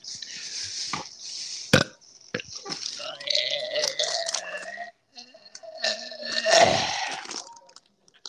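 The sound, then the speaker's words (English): A run of dry, strained burps, croaky and drawn out with a gagging edge, broken up by short wet clicks and gulps, with no talking. “No, I was dry burping.”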